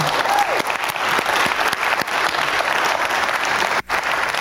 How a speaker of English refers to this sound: Won't you give him a round of applause